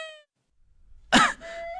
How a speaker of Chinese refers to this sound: 我咳嗽一下拉一裤子，咳嗽一下拉一裤子，现在都不敢咳嗽了。